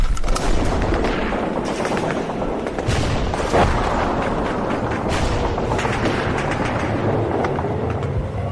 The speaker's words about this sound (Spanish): Sí, hombre, encima bombardeo. ¿Pero no tenéis otro momento? Hasta los cojones me tienen con tanto disparo y tanta bombita.